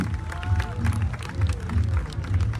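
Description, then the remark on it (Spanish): A large audience claps loudly and steadily, a dense patter of hands with a low crowd rumble and scattered cheers and voices mixed in, filling the whole stretch, as the duchess of the 2022 Coffee Fair arrives on stage for her coronation in Atoyac. “Efectivamente, ya viene arribando hacia este escenario la duquesa de esta Feria del Café 2022, lo cual, señor otro fuerte aplauso, que se escuchen los aplausos, muchachos.”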